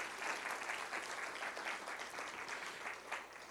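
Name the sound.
audience applauding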